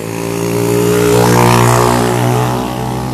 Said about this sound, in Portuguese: não vou conseguir competir com escapamento é, cerrado. Então deixa passar e aí eu espero para poder falar.